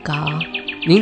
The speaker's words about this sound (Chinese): 呃，您听树上的小鸟叫了那么起劲儿呢。 嗯，春天啦，天气好，它们当然开心啊。